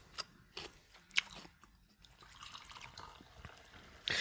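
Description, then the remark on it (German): Tea being poured: a few soft clicks and drips give way to a faint, steady trickle of liquid, ending with a brief louder splash. Quiet overall, with no voices. “Oh, wie, wie, wie, wie zwischendurch immer dann so kurz Ruhe ist und dann hört man so, wie so Tee eingegossen wird.”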